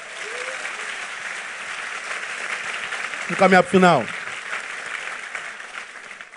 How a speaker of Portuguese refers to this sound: Diga glória a Deus e aplauda ele aí, porque ele é tremendo.